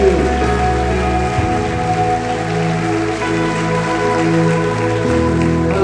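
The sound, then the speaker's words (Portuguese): An audience applauds the Lord Jesus in a steady, dense wash of clapping that lasts the whole stretch, blended with sustained keyboard chords that shift to new notes twice. No one speaks. “Aplauda ao Senhor Jesus, glória a”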